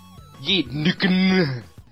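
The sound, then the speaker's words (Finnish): A voiced two-part sneeze: a rising, breathy build-up followed by a louder, drawn-out burst that trails off. It is heard on its own without other talk. “Terveydeksi.”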